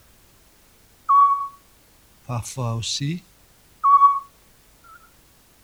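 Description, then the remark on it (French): Two soft, clear whistled hoots of a Eurasian scops owl, a mother calling to her young in the nest, separated by a brief spoken phrase, followed by a fainter, shorter note at the end. “on peut entendre si on est très, très attentif, que la mère, petit duc, parle à ses bébés dans le nid.”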